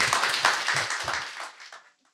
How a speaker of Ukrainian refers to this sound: Я знаю, чому люди аплодували.